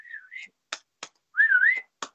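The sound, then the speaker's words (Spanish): A person whistles two short, wavering rising-and-falling notes, broken up by a few sharp percussive clicks, moderately loud with no talking, whistling to divide a group in a kindergarten without speaking. “Entonces empecé a chiflar y, y dividí a mi grupo sin hablar,”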